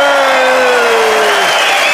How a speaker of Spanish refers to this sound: Entonces podríamos hacer saludar primero con un grito a los que vinieron. Adelante los que vinieron. Muy bien. ¡Eh!